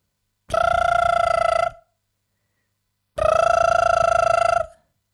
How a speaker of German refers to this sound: Der Wecker, der macht